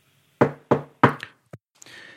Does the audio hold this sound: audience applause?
no